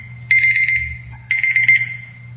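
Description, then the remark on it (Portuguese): An alarm clock rings in two shrill, buzzing bursts about a second apart, fairly loud, over a steady low electrical hum, with no voices. “seja bem com esse relógio aí.”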